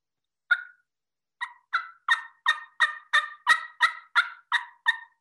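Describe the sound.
A Legacy diaphragm mouth call, held up against the roof of the mouth, imitates a turkey: one raspy yelp, a short pause, then about ten quick, rhythmic yelps, fairly loud, with no talking.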